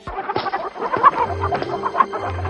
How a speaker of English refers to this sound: Oh, that silly hen ran away! Who's going to sit on the eggs now?